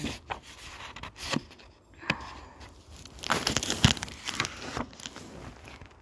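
A plastic bag crinkles and rustles in someone's hand, with irregular crackling bursts that swell and fade over several seconds. No one speaks.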